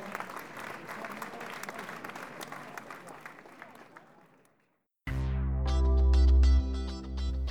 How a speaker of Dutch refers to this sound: Applaus voor deze groep, dankjewel.